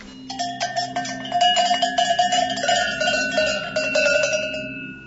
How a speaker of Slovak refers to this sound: To sú okruhľaky na ovce.